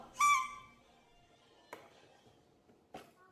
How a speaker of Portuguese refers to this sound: Eu lembrei, eu usei também apito, corneta, fazia barulho e ele, ele olhava, olhava. para mim, né?